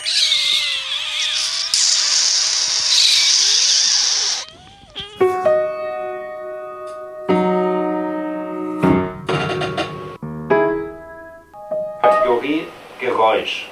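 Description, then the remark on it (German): Several voices imitate buzzing mosquitoes with whiny, sustained hums and hisses, first as a dense overlapping drone, then in a series of held, wavering tones that stop and start. “Die Welturaufführung der ersten Mückensymphonie.”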